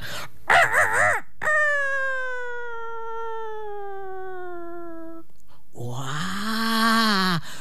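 A rooster living on a farm crows loudly at dawn, a long drawn-out call that slowly falls in pitch, followed by another harsh crowing burst near the end, with no talking.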